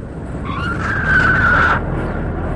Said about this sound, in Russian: Посмотрите, как мчится вон та машина.